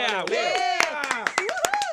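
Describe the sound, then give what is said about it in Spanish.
Scattered hand claps, sharp and irregular, ring out while voices talk and call over them, a small group applauding because Argentina is winning so far. “Un aplauso”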